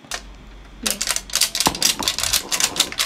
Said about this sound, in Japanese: あのプチの食べ終わったプチのあのプラケースを全力で「はいはいはいはいってやってる音